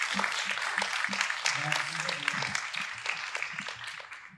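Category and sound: crowd, church audience applauding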